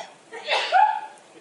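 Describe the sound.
A single sneeze, a breathy burst swelling into a short voiced rising tail, fairly loud with nothing else around it.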